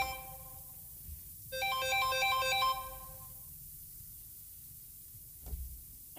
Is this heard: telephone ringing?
yes